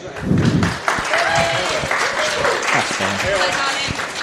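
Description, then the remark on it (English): A crowd claps steadily for several seconds, a dense, sustained burst of applause with voices cheering and calling out over it. “Can we just give a big hand”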